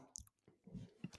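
Wet chewing with a mouthful of food, a few irregular crunchy, squishy bites over just over a second, quiet with no talking.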